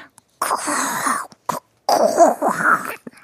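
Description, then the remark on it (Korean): A person growls and groans in a raspy, throaty voice, imitating a zombie: a long rattling moan, a short grunt, then another drawn-out snarling groan, fairly loud. “하는 좀비 소리 들려서 너무 잘했나?”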